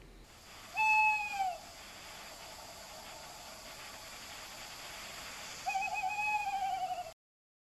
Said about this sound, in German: Ja, die meisten von euch werden es wahrscheinlich wissen, das handelt sich natürlich um den Waldkauz. Aber was vielleicht nicht alle wissen, ist der Umstand, dass das der Ruf des männlichen Waldkauz ist.